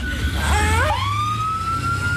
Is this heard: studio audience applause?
no